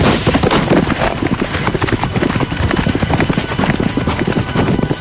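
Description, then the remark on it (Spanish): Two ridden horses, one dapple grey and one chocolate-brown with a black mane, gallop swiftly down a green hill: a dense, continuous drumming of hooves with a rapid, uneven rhythm that stays loud and steady throughout, with no voices. “Más tarde ambos montan a caballo y galopan raudos bajando una verde colina.”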